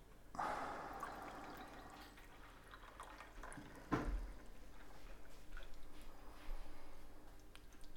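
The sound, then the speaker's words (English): Tea brewed at 55 degrees Celsius (135 Fahrenheit) pours steadily from a hot teapot into a cup, a soft continuous liquid trickle with a brief clink partway through, lasting several seconds without any talking. “And let's pour it.”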